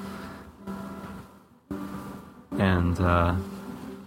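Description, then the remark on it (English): Sustained piano tones ring steadily in the background as a piano is being tuned, repeated held notes, while a man speaks briefly and more loudly over them near the end. “you can hear the piano being tuned right now.”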